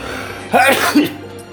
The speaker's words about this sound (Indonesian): kenapa ya gue bersin bersinnya? dingin aja nggak padahal gue gue biasanya bersin tuh kalau lagi dingin aja sih ya